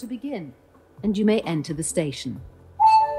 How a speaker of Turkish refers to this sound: Gong çaldı. 5 dakikalık zamanınız başladı.